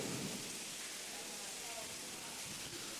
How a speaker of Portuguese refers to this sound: Tá muita chuva, não estou ouvindo.